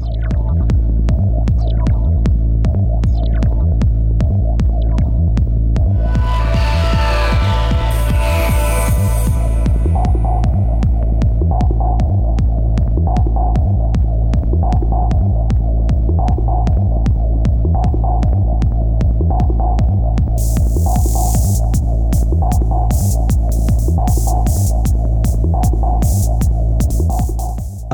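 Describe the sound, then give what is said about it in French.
Electronic racing game soundtrack music, composed to be listened to on its own like an ordinary CD: a loud, continuous track with a deep throbbing bass drone, a steady pulsing beat and occasional bright synth sweeps rising over it. No voices. “Après avoir vu les replays de course avec ces musiques comme The objectifs qu'on écoute actuellement, il s'est dit que cela passait bien avec l'action à l'écran.”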